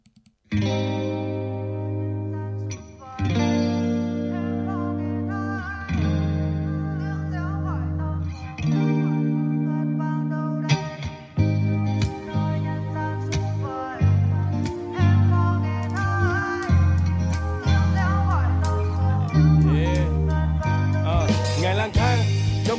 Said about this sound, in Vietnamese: hãy cùng chúng tôi thư giãn trong không gian âm nhạc, mời quý vị sẽ cùng đến với ca khúc